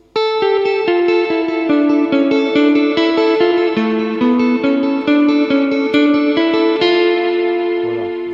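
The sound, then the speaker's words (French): An electric guitar plays a steady four-bar looping melodic phrase of repeated notes, drenched in reverb that smears each note into a shimmering wash, loud with no talking. “cette reverb là, je l'enlève.”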